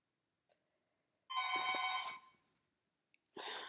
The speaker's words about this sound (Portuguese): Um, entretanto, tocaram à porta